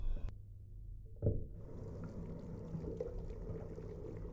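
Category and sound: household object, water running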